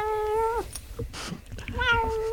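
cat meowing sound effect

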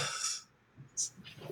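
sneeze

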